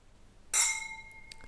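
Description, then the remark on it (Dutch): Whisky glasses clink together once in a toast, a bright strike that rings on with a clear, fading tone, followed by a couple of faint light taps. “De laatste aflevering worden steeds beter met dat klinken, joh.”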